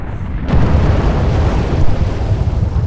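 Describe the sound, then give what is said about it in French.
A huge artillery cannon fires from among the trees opposite the trenches on 11 November 1915, with a heavy, deep blast that rolls into a long, loud rumbling roar, dominated by low thunderous energy with no voices. “Quelque part en face, entre les arbres, un énorme canon envoie de la poudre.”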